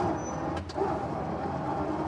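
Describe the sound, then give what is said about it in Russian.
An old car's engine is started and rumbles steadily, a dense low mechanical drone with a couple of brief hissing bursts near the start, and no voices. “Вот машина на ходу, обращаю внимание. Угу. Могу завести?”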